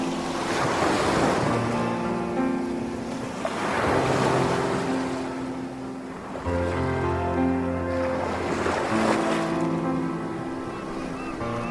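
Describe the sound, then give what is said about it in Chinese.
Ocean waves at a small island in the Indian Ocean surge and wash in about four rolling swells, each a broad hiss that rises and fades every two to three seconds, over a low, steady tonal hum. No one speaks. “咦，这里是哦，印度洋上的一个小岛。”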